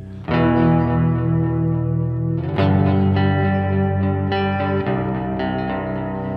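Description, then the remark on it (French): Electric guitar chords played with effects, ringing and sustained, changing a few times while the open sixth string drones steadily underneath; no one speaks. “Garde tes deux notes euh, en dessous, mais garde la sixième à vide.”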